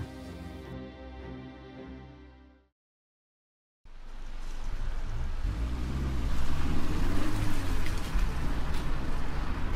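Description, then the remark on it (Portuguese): A steady humming tone stops, then after a brief silence heavy rain pours down loudly, a dense continuous hiss with a low rumble underneath. “Essa chuva tá me assustando.”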